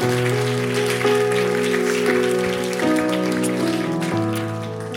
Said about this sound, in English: Well, y'all can go ahead and just give God a round of applause for his faithfulness.